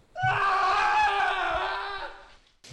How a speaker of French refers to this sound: Et au moment où elle dit ça, euh, vous commencez à entendre des hurlements de terreur à l'extérieur. Alors ah, on se dirige vers l'extérieur pour bah, voir ce qui se passe.